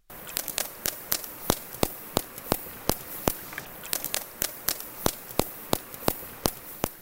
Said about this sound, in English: Turns out the key to underwater echolocation is vocal fry. Yeah, that creaky voice that some people love to hate, only this time in a whale. Here's what it sounds like.